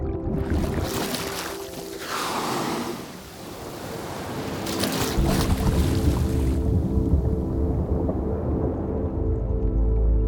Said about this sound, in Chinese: 你刚听到的是鲸类靠近水面时发出的喷气声音。那这种声音因为在空气中会被迅速的消散，但是，一旦进入深海领域，海水的物理折射率低，声音就能牢牢地待在水中。